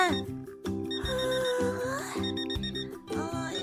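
A melodic electronic alarm clock tune rings fairly loud to wake a girl, bright repeating notes and a gliding high line over a bouncy, stepping bass pattern, with no voices.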